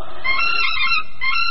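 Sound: chicken clucking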